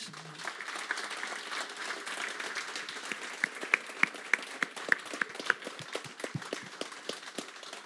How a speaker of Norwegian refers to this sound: Men da tror jeg vi avslutter, og så klapper vi